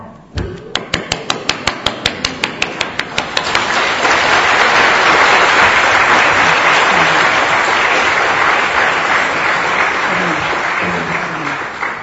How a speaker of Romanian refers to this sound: Numai că în fiecare dintre voi este cineva care merită aplauze și nu-l aplaudă nimeni. Acum stați liniștiți că vă aplaud eu, da?